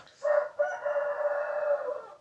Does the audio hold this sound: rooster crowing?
yes